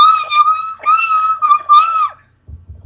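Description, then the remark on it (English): A loud, high-pitched excited squeal from a single voice, held for about two seconds in three quick wavering bursts, then cut off into quiet. “i swear to god i fangirl squeed i really did i went oh my god”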